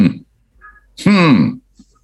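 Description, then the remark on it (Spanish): A voice imitates guttural grunts: a short low sound at the start, then one louder, strained, rising-and-falling vocal grunt about half a second long, clear, with brief quiet in between. “Después de gestos, especie de sonidos guturales, gruñidos, podríamos decirla.”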